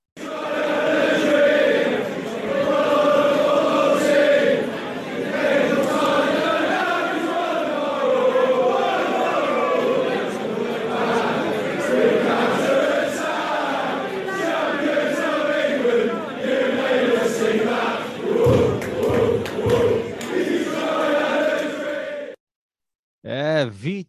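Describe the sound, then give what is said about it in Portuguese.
A large crowd of Leicester supporters sings the stadium chant "Vichai Had a Dream" for the club's Thai owner Vichai, loud and sustained with a rolling melodic line for about twenty seconds before breaking off abruptly. “Essa música aí, a torcida do Leicester cantava pro tailandês que acabou falecendo, então, nesse trágico acidente.”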